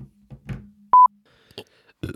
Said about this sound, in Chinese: 怎么听到电流声了？喂喂喂，别老鼓捣个补，我真的能听到电流声，怎么回事？